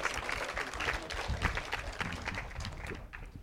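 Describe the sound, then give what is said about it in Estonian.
An audience, having stood half an hour in the sun, claps for itself in a dense, steady burst of applause that holds at a fairly even level before thinning slightly at the end. “et pool tundi seistud päikse käes, aplaus endale.”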